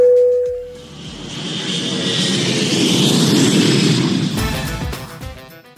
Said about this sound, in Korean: 자, 비행기 이륙합니다. Let's get it!